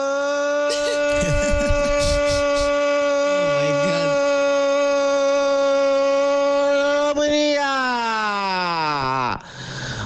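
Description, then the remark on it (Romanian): In a voice message, a voice imitates a fire alarm siren with one long, loud, steady wailing note held for about seven seconds, then sliding downward in pitch before cutting off. Brief noisy bursts sound early on. “avem un comentator care începe ca o alarmă de incendiu și după aia uh, continuă ca un comentator sportiv.”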